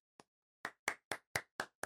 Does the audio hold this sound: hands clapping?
yes